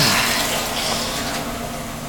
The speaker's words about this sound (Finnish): No niin, nyt on vettä. Löylymestari on hyvä vaan ja heittää.